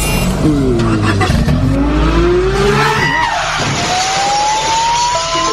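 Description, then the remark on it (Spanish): A car engine revs hard and climbs in pitch through rising gear sweeps as it pulls away, with a brief tire squeal mixed in; loud and continuous, with no speech over it. “Me tomaste y me montó al carro.”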